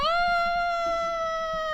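A single long, drawn-out cat meow, loud, holding a steady pitch for nearly two seconds with no one talking.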